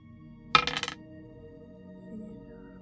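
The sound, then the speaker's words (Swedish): A short, sharp clatter of dice tumbling across a hard surface: a quick burst of bright clicks that fades out within half a second, then quiet background hum. “Och då eh, får jag lägga till eh, en till tärning.”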